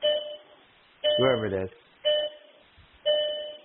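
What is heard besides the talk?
bell ringing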